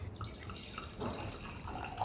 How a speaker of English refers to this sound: the glass of Riesling Andrew Moore is about to pour himself at the end of this long day